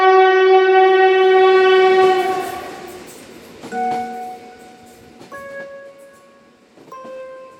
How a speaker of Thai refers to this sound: เมื่อเสียงหวีดรถไฟดังครั้งได้ยินก็ทำให้ใจหาย เพราะทุกการร่ำลามันน่าเสียดาย ที่เราอาจจะไม่ได้เจอกัน